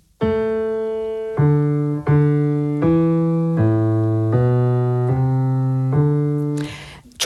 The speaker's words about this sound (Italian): E infine nella quarta sezione, che viene ancora definita evoluzio, evoluzio del secondo contrappunto, la melodia del corale torna al basso ma con un artificio, cioè viene eseguita per moto contrario. In sostanza diventa così.